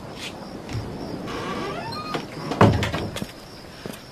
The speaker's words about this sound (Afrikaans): Maak dit toe die deur, anders is daar 'n trek op my sterre. ek sal seker maak die deur is goed toe, ouma.